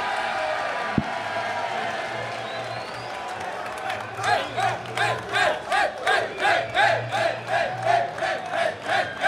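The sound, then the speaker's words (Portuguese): A live crowd at the show Call of Cash roars with cheers and shouts after a countdown, the noise steady at first, then breaking into loud rhythmic bursts of about two per second, like chanting or shouting in unison. “Quero fazer muito barulho com vocês, hein?”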